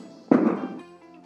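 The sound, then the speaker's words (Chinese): Firecrackers set off by many people outside in a rural hometown area where they are not banned, on Valentine's Day, go off in a sudden loud burst, a dense crackling bang lasting about half a second before fading to a quiet background hum. No one speaks. “哎，刚刚刚刚是外面的那种鞭炮的声音，因为我在老家，我们这里不会禁止，老家农村嘛，小城市，然后不会禁止放鞭炮，所以非常多的人在放鞭炮，还挺好。”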